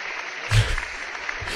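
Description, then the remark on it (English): A short burst of applause sound effect played from an applause button: a steady, dense hiss of many hands clapping that fills the whole moment, with a soft low thump early on and no voices. “I'm giving you the applause button.”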